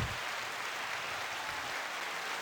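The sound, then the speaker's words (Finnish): A steady, dense wash of applause sound effect that could pass for heavy rain, continuous and even in loudness for a couple of seconds with no voices. “Kuulostaa sitä enemmän taputukselta vai vesisateelta?”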